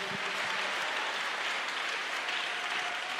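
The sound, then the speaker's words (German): A crowd applauds craftsmen, clapping steadily in a dense, continuous wash of applause lasting a few seconds, even in loudness throughout, with no voices standing out. “Handwerker kommen, denen geben wir mal einen Applaus.”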